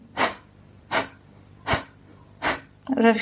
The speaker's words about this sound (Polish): przy czym część osób ma na tyle zblokowaną przeponę czy mięśnie żebrowe, że nie wykonuje tego w tak równy sposób, dlatego często się zaczyna od tego, od takiego oddechu podobnego jak kapalabati